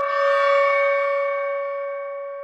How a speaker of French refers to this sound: Le juge fit signe à son assistant de faire sonner le gong, ce qui signifiait qu'il allait rendre son verdict.